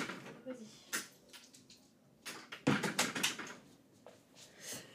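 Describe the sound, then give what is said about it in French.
A door being opened for Suzy, with a series of sharp clicks, knocks and rattles from the latch and handle spread over a few seconds. “Ah, Suzy veut déjà que je lui ouvre la porte.”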